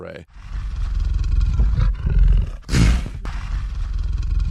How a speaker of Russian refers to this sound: И это не такой большой грозный рык, чтобы запугать, но это лев, который склонился над своей добычей.